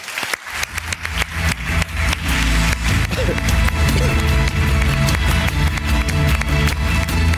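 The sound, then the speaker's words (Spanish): An audience breaks into loud, dense applause for advertising creative Tony Segarra. The applause swells within the first moments and then holds steady, a continuous wash of many hands clapping with no voices standing out. “Un aplauso para Tony Segarra.”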